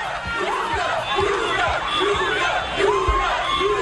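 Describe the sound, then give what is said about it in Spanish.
A dense crowd of Junior football fans shouting and chanting together, celebrating an eighth star, loud and continuous, with overlapping voices and rhythmic thumps underneath. “La falsa octava estrella que celebraron los hinchas del Junior.”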